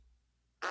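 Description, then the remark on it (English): After a moment of near silence, a single short, loud, raspy burst: a fart-like noise made with the mouth, cut off at the end. “No, I, I made a mouth noise.”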